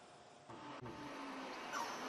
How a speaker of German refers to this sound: Der Bus Moskau-Rostov am Don.